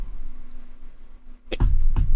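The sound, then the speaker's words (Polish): A quiet stretch gives way to a sudden sneeze, a sharp explosive burst of breath, followed moments later by a second, shorter burst. “Na zdrowie.”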